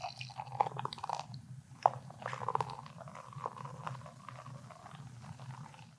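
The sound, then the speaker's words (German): Beer is poured into a glass during a beer-style tasting, a steady low gurgle under a crackling fizz, with a couple of sharp clinks early on. Nobody speaks. “Ich versuche mal das einzuschenken, sodass ja. man es auch hört.”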